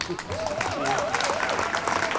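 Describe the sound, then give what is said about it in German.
An audience applauds, a dense steady wash of many hands clapping at even loudness, with some voices and murmurs mixed into the noise. “Dürfen wir nochmal klatschen.”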